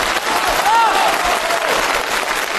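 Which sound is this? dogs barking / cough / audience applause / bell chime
audience applause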